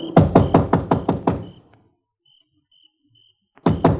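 Loud knocking on the door of a dark country house at midnight, north of Tilden: a quick run of about eight sharp raps, a pause of silence, then another burst of rapid knocks starting up again.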